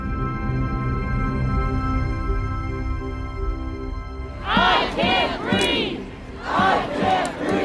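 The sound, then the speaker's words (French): After a steady low droning tone, a large crowd of protesters in the United States bursts into loud rhythmic chanting, many voices shouting together in repeated, punchy phrases at protest volume. “La mort de George Floyd va entraîner des manifestations de grande ampleur partout aux États-Unis”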